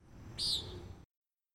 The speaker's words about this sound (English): the nighthawk's call comes from high above later in the spring, while the woodcock's nasal peent comes from the ground in early spring.